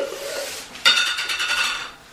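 Glass jam jars, brought out for freshly cooked homemade jam, clink and rattle together as they are handled, with a sharp bright knock followed by a second or so of scraping, jostling glassware, with no voices.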